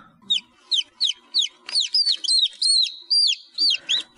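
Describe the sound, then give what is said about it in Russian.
A newly hatched chick, hatched from an incubator egg, cheeps over and over, a quick series of about a dozen shrill, rising-and-falling peeps in a steady rhythm, clear with nothing else around it. “Восторженный писк цыпленка, вылупившегося из инкубаторского яйца.”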